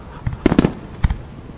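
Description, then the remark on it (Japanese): Fireworks crackle and bang in a quick cluster of four bursts, then one more after a short pause, moderately loud, with no voices, at a small village fireworks festival. “規模は小さいけど、村のみんなで頑張って盛り上げて楽しめる花火大会が大好きです”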